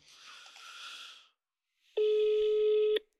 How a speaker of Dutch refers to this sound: Dus we bellen hem. Maar gewoon even. Jij kan gewoon praten. Ik hou mijn telefoon weer er tegenaan.